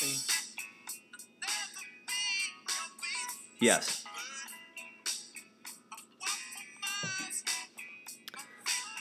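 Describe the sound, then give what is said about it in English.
Music plays steadily in the background with bright melodic tones and a quick, choppy rhythm, fairly quiet, while people talk over it. “Can you hear the tunes okay?”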